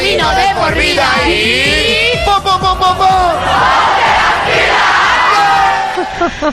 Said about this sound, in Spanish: Uno de estos tres es en un programa que tenían hasta, tenían hasta grito de guerra. Estos programas musicales tenían grito de guerra como este.